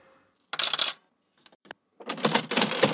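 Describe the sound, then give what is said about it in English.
A cash register sound effect: a short bright ding, a burst of metallic clatter, a few sharp clicks, then a longer rattling rush of coins and drawer noise, loud, with no talking. “Cash register sound.”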